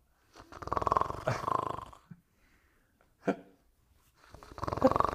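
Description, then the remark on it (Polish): A voice imitates a person snoring loudly at a theatre dress rehearsal: two long, rattling snorts, a short grunt after a pause, then another drawn-out buzzy snore. “tam mówi tak, chwileczkę, kto to chrapie, kto to chrapie?”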